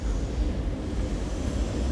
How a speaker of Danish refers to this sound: Nu kører vi ind på Berlins hovedbanegård.